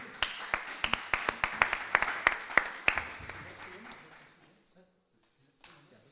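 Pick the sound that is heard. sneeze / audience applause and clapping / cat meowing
audience applause and clapping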